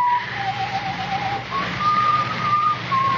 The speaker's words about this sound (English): Well, of course I hear it. It's someone whistling, but why are you acting like this? He, the... The slasher whistles that tune.